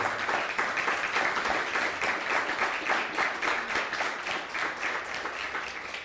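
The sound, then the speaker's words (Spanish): Sustained applause from an audience, a dense, steady wash of many hands clapping at once, holding fairly loud and even for several seconds with no talking over it, given for all the nations at a Shabbat gathering. “Den fuerte aplauso a todas las naciones, por favor.”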